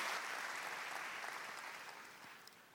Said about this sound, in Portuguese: Então dá um grande aplauso ao Senhor.